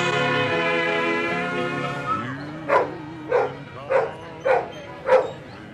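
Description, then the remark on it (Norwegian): A stray labrador looking for a new owner barks five times in a steady, evenly spaced rhythm, loud, following a stretch of soft sustained Christmas music from a TV advert for dog adoption that fades out before the barking starts. “Julemusikken er fra en fjernsynsreklame for adopsjon av hunder, og den som bjeffet, var en høyst levende herreløs labrador på jakt etter ny eier.”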